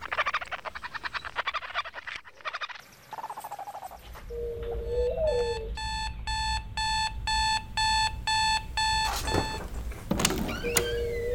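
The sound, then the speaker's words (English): An electronic alarm clock beeps in loud, rapid, evenly spaced bursts for several seconds. Before it, a stretch of chirping, croaking outdoor ambience plays. No one speaks. “She remembered that she had to be at the preschool at 9 a.m., and so she set her alarm.”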